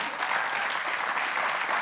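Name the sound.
audience applause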